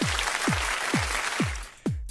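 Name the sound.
applause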